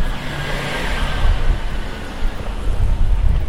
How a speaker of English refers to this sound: Yes, a refuse collector lorry just goes past.